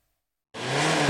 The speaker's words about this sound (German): Röhrende Motoren, Abgas aus dem Auspuff, ein Auslaufmodell, zumindest für Neuwagen.